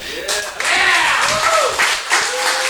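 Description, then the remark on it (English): A crowd claps and cheers steadily in greeting for Brooks Hall, the latest member of the University of Dayton Athletic Hall of Fame: dense loud applause mixed with rising and falling whoops and shouts that swell and dip throughout. “Uh, since you're the mood to cheer for things,”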